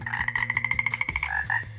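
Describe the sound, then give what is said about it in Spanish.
A toad croaks inside a house, sounding as if it is right in the kitchen, in a rapid, rattling series of about fifteen quick pulses, then pauses and gives two more short croaks, with no talking. “¿Cómo se habrá podido meter un sapo a la casa? se preguntó la señora Kemp sonaba como si estuviera justo en la cocina”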